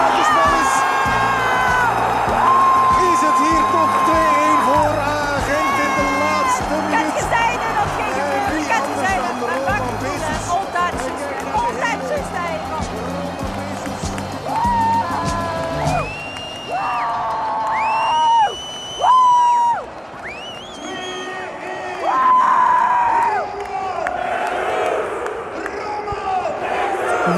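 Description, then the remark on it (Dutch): A big football stadium crowd in Gent roars and cheers loudly and continuously after a goal at the end of the match, then the noise thins into scattered shouts, whoops and whistling, with excited voices yelling over the din. “Wat een ontlading. Wat een einde van de wedstrijd.”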